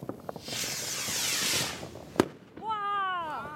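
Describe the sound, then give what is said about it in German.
A firework rocket whooshes upward with a long rising hiss, then bursts in one sharp bang, followed by a voice calling out in a high, wavering tone. “Okay, jetzt Achtung, jetzt kommt das Feuerwerk”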